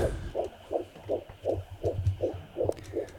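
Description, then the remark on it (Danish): The heartbeat of an eleven-week fetus, fast and steady, about nine whooshing pulses over a low rumbling background, like a Doppler monitor recording. No one speaks. “det er hjertelyden af et foster i uge 11.”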